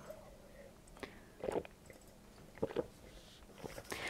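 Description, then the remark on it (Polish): Quiet drinking of water: a few wet gulps and swallows in short bursts about a second apart, with soft mouth noises between and no talking. “dużo dzisiaj treści na naszym spotkaniu, więc nie dziwię się też e, korzystam z wody.”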